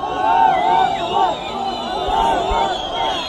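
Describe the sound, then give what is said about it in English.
Thousands of people at the funeral of Arafat Jaradat in a small Palestinian village chant "God is great" together outdoors, many voices rising and falling in a steady, rhythmic refrain, loud and continuous with a dense murmur of voices underneath. “People chanted, God is great.”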